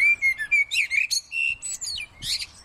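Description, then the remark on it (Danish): A common blackbird sings a continuous, varied run of fluting whistles and twittering phrases, clear, with no voices present. “så indeholder den sang faktisk rigtig mange forskellige informationer en solsort sang, den lyder jo forskelligt fra alle andre fuglearters sang, så derfor så kan vi sige, når vi hører en solsort synge, så får vi at vide, at det faktisk er en solsort.”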